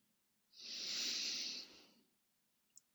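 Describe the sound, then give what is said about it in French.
A single long, deep breath drawn in through the nose while filling the belly and chest, airy and hissing, swelling then tapering over about a second and a half, with no voices and a tiny click just after. “Et pour cela, vous allez prendre une grande inspiration par le nez en gonflant le ventre et la poitrine.”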